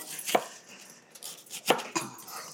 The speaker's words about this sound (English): So we're chopping that onion, and I'm not going to use a fancy term like small dice or medium dice